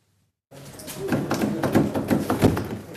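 The stuck right-hand door handle of a nine-year-old police car in Solør, Hedmark, Norway is yanked again and again, about five rattling clunks in quick succession as the door refuses to open, fairly loud, with no talking.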